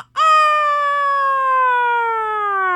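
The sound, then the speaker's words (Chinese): A voice imitates a rooster's crow in a reading of the children's picture book 《哦哦哦》: a single loud, sustained harmonic call lasting nearly three seconds, its pitch sliding slowly downward toward the end. “公鸡一叫，森林里的动物们都起来了。”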